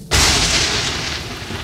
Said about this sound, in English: Good heavens, did you see how he started at the thunder?